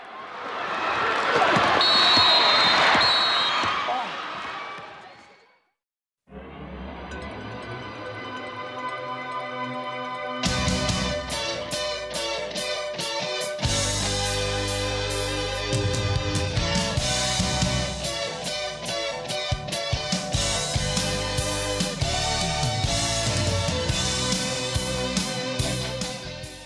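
A burst of noisy, crowd-like commotion fades out, then a drama theme song begins softly and builds into a full, driving band arrangement with a steady beat that plays loudly to the end.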